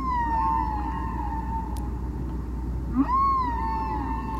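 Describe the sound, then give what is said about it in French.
Long, sustained tonal moans with rich harmonics glide slowly in pitch, one extended call followed by another rising then settling, over a deep rumbling underwater background of humpback whale song in the middle of the ocean. “La réponse de la baleine à bosse”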